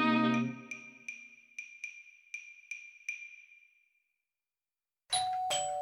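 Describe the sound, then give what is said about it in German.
A bright electronic doorbell chimes as a food delivery from a restaurant arrives, a low opening tone followed by about seven quick ringing dings that echo and fade, then a short pause before a loud, harsh burst of sound at the end. “Ah, der Klang, wenn die Leibspeise vom Lieblingsrestaurant ankommt.”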